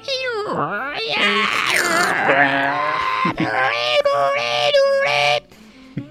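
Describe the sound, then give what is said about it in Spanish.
A voice mimics a dial-up modem connecting to the internet, with warbling pitch sweeps, screeches and buzzy tones for about five seconds, loud, then cutting off abruptly. “Y que el internet cuando se conectaba hacía todos los sonidos del internet.”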